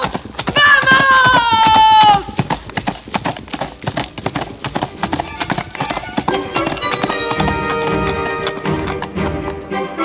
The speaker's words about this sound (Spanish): Ana corre, se trepa al sulky, sujeta las riendas, arrea, sonríe.